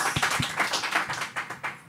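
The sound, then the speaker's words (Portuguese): A short burst of clapping from a small audience for a volunteer performer about to do a one-minute set, brisk overlapping claps at a steady pace, moderately loud and with no voices over it. “Um minuto de setup e palmas.”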